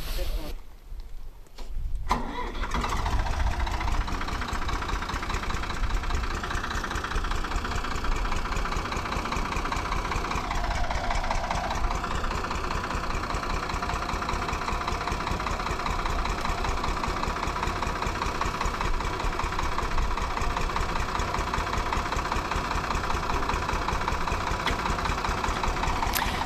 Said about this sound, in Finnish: No niin, siinä ne nyt pörisevät viisi traktoria. Antti Tolvi seisoo kapellimestarina edessä ja johtaa. jokaisessa traktorissa istuu soittaja, henkilö, joka säätää moottoria kovemmalle tai hiljemmalle Tolvin ohjeiden mukaan.